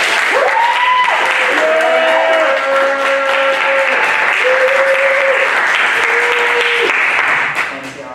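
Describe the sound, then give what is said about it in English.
A crowd applauds loudly and steadily for about eight seconds, with scattered whoops and cheers rising above the clapping before it begins to fade at the very end. “Like, we expect you to show so much snaps, love, support, cheers, all of that.”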